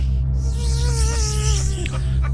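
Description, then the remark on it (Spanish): A steady, droning buzz of killer bees hums continuously for a couple of seconds, wavering slightly in pitch over a dense low background rumble, with no voices. “abejas asesinas llegan a América.”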